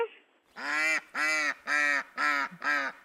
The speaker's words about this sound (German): Die kleine motzende Ente. Unter der 9.